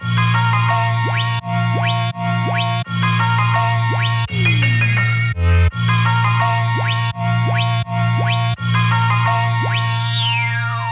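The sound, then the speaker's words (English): An electronic music sample loop played through an EQ, with a heavy, sustained bass line boosted in the low end as the low-frequency parameter is raised, while bright synth notes repeatedly swoop upward in quick, bouncy sweeps; no one speaks. “I'll mostly play around with the bottom end so you could hear the bass being accentuated a bit more”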